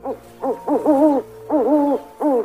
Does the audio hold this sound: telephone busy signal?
no